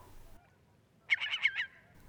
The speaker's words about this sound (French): Ce cri est un cri d'alarme, euh, car l'oiseau, qui est un courlis-cendré, a repéré euh, la bonnette de mes microphones et, avec le peu de lune qui éclaire, il est tout intrigué.